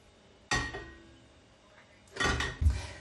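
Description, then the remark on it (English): A metal cooking pan is pulled out and set down: a sharp clang with a ringing tail, a quiet pause, then a burst of clattering and scraping metal ending in a dull knock. “Right, I'll just get a, get a pan.”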